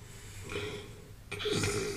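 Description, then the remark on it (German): Snoring of a robot character, apparently voiced by a performer: a soft inhaled rasp, then a louder, buzzing snort a moment later. Both are fairly quiet, with no talking. “Ich treffe den einzigen Roboter, der Gefühle hat. Und was tut der? Der schnarcht.”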